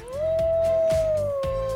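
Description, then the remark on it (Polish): Wolfie, a small dog weighing about one and a half kilograms, lets out one long, sustained howl, rising slightly then holding a steady pitch before slowly sagging, loud, with no one talking over it. “Wolfie to prawdziwy wilk, naprawdę bardzo niebezpieczny, lepiej się do niego nie zbliżać, potrafi się wgryźć w aortę, yy, waży całe półtora y, kilograma”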